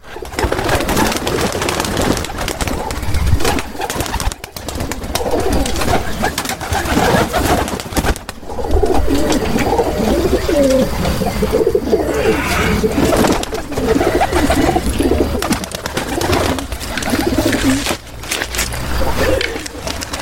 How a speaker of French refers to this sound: Donc c'est pas la même variété que nos pigeons des villes visiblement. Et il arrive à les faire voler.